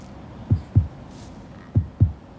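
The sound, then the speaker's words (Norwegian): A steady heartbeat thumps in low, muffled double beats, two lub-dub pairs about a second apart, close and fairly loud over a faint hum with no voices. “Jeg hører hjerteslag.”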